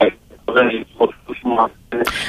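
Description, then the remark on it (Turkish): A caller's voice on a phone line into a radio broadcast speaks in choppy, broken bursts with a thin, band-limited telephone quality, the words garbled and hard to make out, ending in a brief hiss of noise. “ee, sesiniz sesinizi çok net alamıyoruz. Telefonunuzun çekmediği bir noktada olabilirsiniz belki.”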